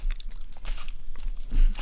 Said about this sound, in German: Man soll oft kauen, ja, sagt jeder Arzt, bis zu 300 Mal pro Bissen.